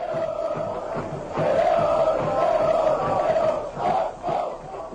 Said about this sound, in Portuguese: O vídeo, gravado provavelmente por um cinegrafista amador, é um registro da torcida palmeirense cantando, batucando e pulando no estádio.